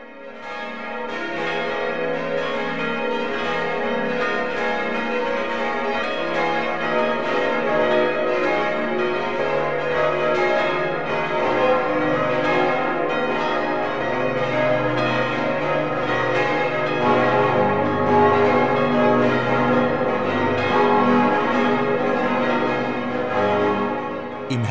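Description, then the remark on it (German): The bells of two St. Martin churches in Garmisch, Upper Bavaria, Germany, ring together for the 12 o'clock midday chime in a dense, continuous peal, their overlapping strokes sustained and resonant for the whole stretch, fairly loud with no voices. “Michael Mannhardt hat die zwei Martinskirchen besucht, deren Glocken nun gemeinsam läuten.”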